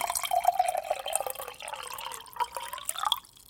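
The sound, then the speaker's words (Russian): Water pours into a glass, a steady trickling splash with a faintly rising tone as it fills, lasting a few seconds before stopping abruptly. No one speaks. “Это вода и не алкоголь.”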